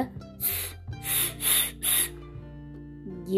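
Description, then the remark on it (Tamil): A snake hisses four times in quick succession, each a short, breathy, airy burst, over a low steady hum with no talking. “எது இப்படி சத்தம் கொடுக்கும் மறுபடி சத்தம் கேட்டு பார்க்குறீங்களா கீழே ஒரு பாம்பு இருந்ததான்”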